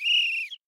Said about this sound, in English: yeah, so l- let's go ahead and uh, wait till the referee whistles, blows, blows the whistle now, right, to allow the rotation to happen. Exactly. Um, and uh, you guys will hear it right now.